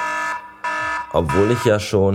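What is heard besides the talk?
alarm clock beeping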